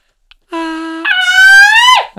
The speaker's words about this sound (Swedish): Skrik nu då!